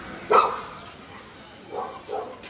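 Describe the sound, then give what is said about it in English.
A dog barks once sharply and loudly, then gives two softer, shorter barks a moment later over a faint background hum. “Bet you're not going to miss that dog.”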